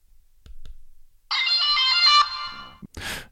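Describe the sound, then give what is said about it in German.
A smart white cane sounds its horn warning, triggered by pressing its touchpad twice and holding the finger down on the second press: a loud, electronic ringtone-like tone with stacked harmonics, held for about a second, preceded by two faint clicks and followed by a brief rustling burst. “irgendwie ein komischer Hupensound, finde ich.”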